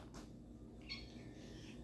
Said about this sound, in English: uh, how you doing, puss? Yeah, cat, uh, cat wanted to be in for the podcast, but uh, hey, I got a guest, but uh.